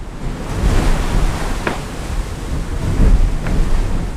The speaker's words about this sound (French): Et là du coup, le bateau est très très agité, il y a toujours de l'eau sur le pont.